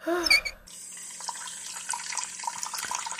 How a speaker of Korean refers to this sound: 한참 있다 들어오신 원장님은 손을 씻는 것 같았고